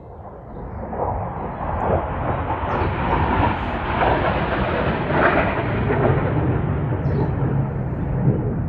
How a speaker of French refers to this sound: je vais laisser passer les avions de chasse